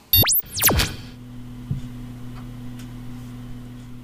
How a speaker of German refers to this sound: Das, was ihr im Hintergrund hört, das ist ein bekanntes Geräusch. Das ist ein Lüfter, der Lüfter eines Rechners.